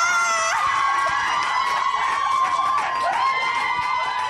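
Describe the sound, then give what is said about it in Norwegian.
Loud, sustained excited screaming from several people at once as a women's footballer of the year award is received, high-pitched and shrill, with overlapping shrieks that rise and fall continuously, intense with no pauses. “og så fortsetter de å skrike i flere ja, ja, minutter.”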